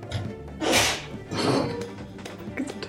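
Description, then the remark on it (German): A sharp, breathy sneeze bursts out, quickly followed by a second noisy burst, with faint background noise and scattered clatter around it. “Gesundheit.”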